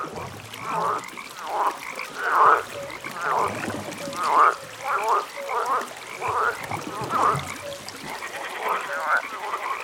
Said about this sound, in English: For some, it will be a, a, a night with the sound of some frogs that will just trigger that. It will not work with, with any frog. It will be just the frogs they heard when they were uh, maybe again on, on a holiday.